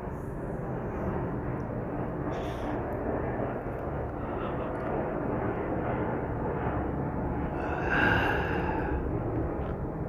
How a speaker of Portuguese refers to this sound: Avião passando.